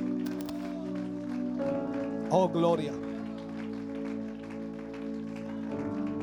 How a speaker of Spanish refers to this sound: Fuerte ese aplauso. Aleluya.